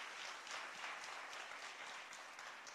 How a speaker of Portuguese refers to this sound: Vou dar uma salva de palmas a Ele por isso, amém?